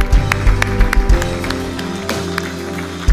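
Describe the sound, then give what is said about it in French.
An audience at a church worship service claps for the Lord in a steady rhythm, sharp hand claps repeating roughly every half second over sustained keyboard chords, fairly loud, with no clear speech. “Est-ce qu'on peut applaudir le Seigneur Alléluia.”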